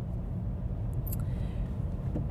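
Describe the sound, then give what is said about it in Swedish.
A car rumbles past outside, a steady low engine and road noise that stays fairly constant in loudness for a couple of seconds, with no voices. “Där var den bilen jag...”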